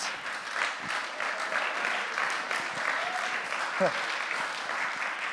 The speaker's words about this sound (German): Nochmal einen Applaus. So viel Applaus will ich gar nicht. Einen Applaus soll mal Jesus geben.